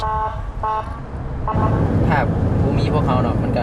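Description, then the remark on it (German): Busy night road traffic in Laos, with many SUVs and pickups, as a rescue team fights its way through: a steady rumble of engines, punctuated by repeated car horn toots and a siren-like tone rising over the din, all loud. “Er kämpft sich durch den Verkehr.”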